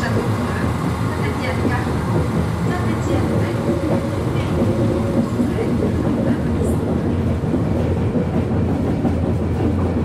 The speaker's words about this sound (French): D'abord, on a pris le train. Un aller-retour pour Saint-Etienne.